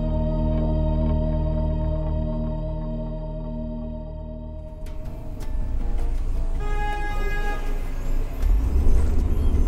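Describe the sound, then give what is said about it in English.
A car engine hums steadily from inside the vehicle, then a sudden jarring thud hits as the car drops into a pothole, followed by rattling and bumpy road noise. “Potholes are frustrating for drivers, and they are damaging for cars.”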